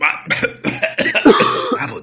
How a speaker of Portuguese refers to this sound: quero ver se ele vai deixar eu tossir.